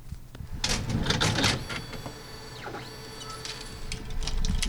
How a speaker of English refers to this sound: have to snake the film underneath a glass plate and feed it into another reel and then hand wind it for a second.